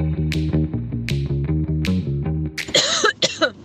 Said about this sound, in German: Ich habe einen kleinen Hustenanfall gehabt. Das hat nichts zu bedeuten. Ich habe auch ein bisschen Kratzen im Hals nach wie vor. Das bedeutet nicht, dass ich dieses Virus habe.